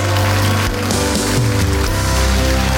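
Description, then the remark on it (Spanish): A church audience applauds Jesus loudly and continuously, a dense crackling wash of many clapping hands, with low sustained musical tones running underneath and no talking. “Puede dar un aplauso bien fuerte a Jesús.”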